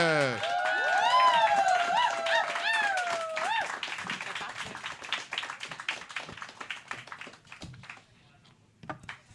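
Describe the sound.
A crowd bursts into sustained applause, with loud whoops and cheering voices at first, then dense steady clapping that gradually thins out and fades near the end.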